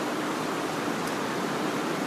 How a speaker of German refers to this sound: Ich glaube, das hört man ziemlich krass. So ist das halt, ne? Es ist echt krass. Vorhin hat es nicht so krass geregnet. Ich bin froh, dass wir drin sitzen.